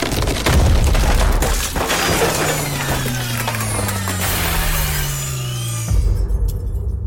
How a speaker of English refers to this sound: The smoke was so thick I couldn't breathe or see further than a few feet in front of my face. A crashing noise erupted over my head like the building was ripped in two. I looked up just in time to see the ceiling cave in on me.